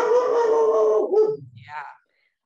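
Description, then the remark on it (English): A dog lets out one long, sustained howl that slides downward in pitch, followed by a brief, quieter whine before it falls silent. “Uh, we all have dogs here, and everyone who's on the show always has a dog.”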